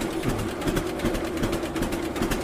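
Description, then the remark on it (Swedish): A slow-running two-cylinder engine from Linghem, Östergötland, Sweden chugs steadily, both cylinders audible as paired beats repeating in an even, loping rhythm with a mechanical rattle, no voices. “Ja, när man, eh, när man hör den nu här, den går så sakta, så kan man höra bägge cylindrarna seura.”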